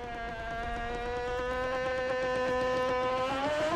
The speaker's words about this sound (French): Les grincements stridents et le martèlement intense nous donnent la sensation que la pression de la glace va déchirer la coque